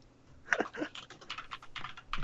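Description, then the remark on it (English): Rapid clicky keystrokes on a mechanical keyboard as someone types a message into a chat, a quick irregular burst of sharp taps, with no voices. “I'll type sultry it sounds um, of the um, mechanical keyboard.”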